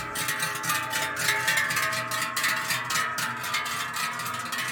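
A dense, continuous clanging of many cowbells ringing at once, overlapping irregularly as a herd of cows moves downhill, with no voices present.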